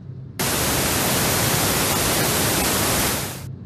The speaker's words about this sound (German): So, das war weißes Rauschen. Zauberei, oder? Ja, und was ist es jetzt? Aber das sind doch alle, alle Töne, die wir gleichzeitig hören können, also alle Frequenzen, sagt man.